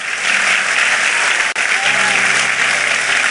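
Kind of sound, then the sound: crowd, audience applauding loudly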